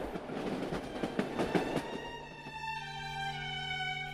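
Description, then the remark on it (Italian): A train with sleeping cars, bound for Kingston, Canada, clatters along the rails with a quick, uneven rhythm of metallic knocks, then a steady, sustained horn-like tone takes over and holds to the end. No voices. “In seguito, recuperati i bagagli e dopo un breve giro per New York, i tre si sistemarono in un vagone letto, su un treno che li avrebbe portati fino a Kingston, in Canada.”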